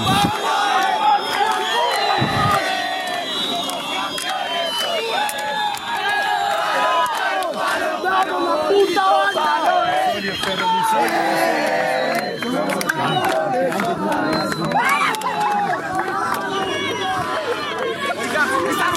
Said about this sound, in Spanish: Excelente. Los gritos del triunfo. Las felicitaciones del triunfo. ¡Vamos, vamos, vamos!